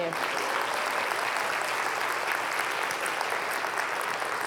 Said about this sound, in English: Let's clap for you.